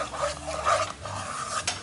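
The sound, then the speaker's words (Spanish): A wooden spoon stirs sugar and a little water steadily in a pot to caramelize it, making a soft, continuous scraping and swishing with brief brighter scrapes, moderately loud with no voices over it. “Con una cuchara de palo.”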